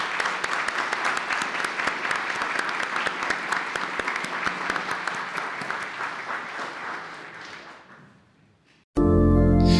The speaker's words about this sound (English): How about a round of applause for our new altar servers?